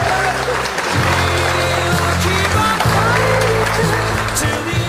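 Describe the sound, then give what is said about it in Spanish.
Steady, dense applause for Formula 1 driver Sergio 'Checo' Pérez's win at the Sakhir Grand Prix fills the whole five seconds at a loud, even level, with a low humming drone and some voices running underneath the clapping. “Aplausos, aplausos para Checo.”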